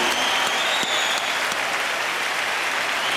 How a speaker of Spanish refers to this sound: Con un aplauso de toda la bola de cabrones, claro. Claro que los que no aplaudan es porque son putos.